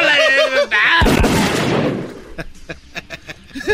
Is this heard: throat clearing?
no